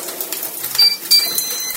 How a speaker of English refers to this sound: That's not only the OptiGrill beep to say that food is cooking, it's also just a little something to get your attention